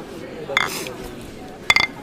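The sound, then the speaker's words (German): Two bright glass clinks ring out, one early and a second, slightly rattling one near the end, like glasses touched together in a toast over a quiet murmur. “Ja, ja, Prost.”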